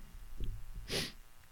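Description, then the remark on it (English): A voice imitates a sniffle, the sound a particular enemy made as it disappeared after being killed: one short, breathy nasal burst, preceded by some faint low rustling, with no words spoken. “It sounds like a sniffle, and it always sounds like it was coming from behind me, which is weird, but like I would kill him, and then he'd be like, Blah!”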